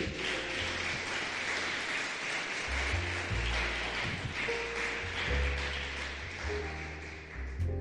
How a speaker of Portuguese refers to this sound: Você pode aplaudir a palavra de Deus, amém?